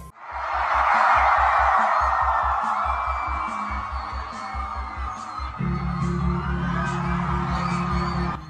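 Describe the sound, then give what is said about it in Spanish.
A large concert crowd roars and screams loudly and steadily, with a pulsing low beat and sustained musical tones emerging beneath the cheering as the song starts. “Pero con la siguiente canción van a escuchar el griterío, que yo creo que si escuchamos los primeros segundos de la rola, no va a necesitar presentación.”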